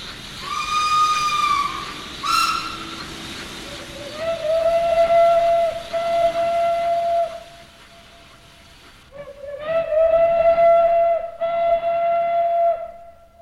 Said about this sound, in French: La 140 C344 et la 140 C314, les deux dernières locomotives à vapeur qui circulent sur le réseau ferroviaire français. La première finira ses jours au musée de la vapeur à Mulhouse. La seconde doit servir de monument sur une place de Reims.